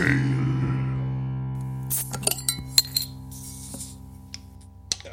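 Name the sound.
beer bottle being opened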